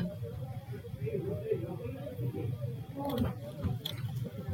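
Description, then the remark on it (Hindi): Someone chews crunchy chips at home, with a few sharp crackling bites partway through, while a low murmur of voices continues underneath. “chips खाना बंद करेगा”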